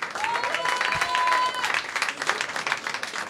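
Audience applause, a steady wash of many hands clapping that holds fairly loud throughout, with a faint whistle tone briefly rising above it early on.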